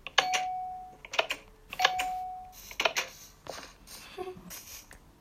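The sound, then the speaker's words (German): A bell built from a note block and redstone repeater rings twice in quick succession, each ring a sustained tone with sharp clicks, followed by a few clattering taps and faint rustling. “Jetzt probieren wir mal beim Klingeln.”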